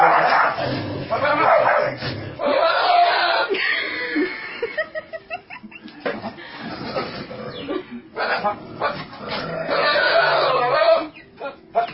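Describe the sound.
A dog barks and yips in bursts over about twelve seconds, mixed in with people talking and chuckling, the barks loud and overlapping the voices.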